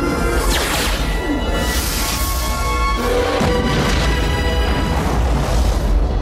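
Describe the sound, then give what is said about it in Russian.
A loud, roaring whoosh of a meteor launched by insects sweeps in, then a heavy explosive crash and rumbling blast follow. The sound stays dense and powerful throughout, with a second sweeping rush midway, and no voices. “Насекомые снова запустили в нашу сторону метеор, но на этот раз мы готовы отразить удар.”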